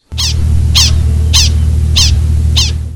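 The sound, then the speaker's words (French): Five sharp, high chirping alarm calls from a prairie dog on seeing a coyote repeat at a steady, even pace, each short and bright, over a constant low rumbling hum in the background. “Donc là, c'est pas facile à distinguer quand on est humain, mais euh, je vais vous euh, faire jouer le cri du chien de prairie quand il voit un coyote.”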